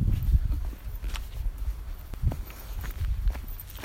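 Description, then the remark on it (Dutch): Steady footsteps crunch along a forest path at an unhurried walking pace, each step a soft thud with a brittle rustle of leaves and twigs, with no talking. “En nu ga ik weer even een stukje lopen.”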